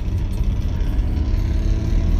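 A bus engine with a broken exhaust rumbles loudly and steadily, a heavy low drone with a rough, sputtering edge and no voices.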